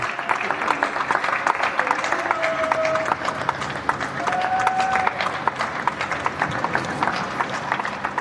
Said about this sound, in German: So wie hier in Nippes klang das in den letzten Wochen oft in Köln. Punkt 21 Uhr wird geklatscht und zwar für Menschen, die in systemrelevanten Berufen arbeiten.